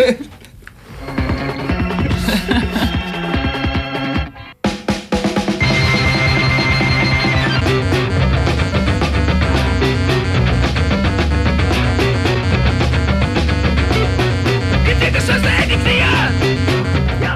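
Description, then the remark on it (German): A loud, dense band song from a band's new album plays, opening with a brief intro that cuts out for a moment before the full band crashes in with a fast, driving beat and bright, buzzing high end. “Und äh, wir hörten 1,08 Titel aus diesem neuen Album.”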